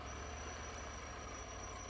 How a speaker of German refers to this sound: Oh, die Bremsen quietschen, was ist denn da los? Zu heiß. Die hintere. Muss ich mal nachgucken bei Gelegenheit.